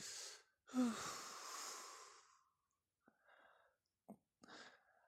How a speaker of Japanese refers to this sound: この、呼吸音だけであくびする人もいれば、はあ、みたいな人がいますよね。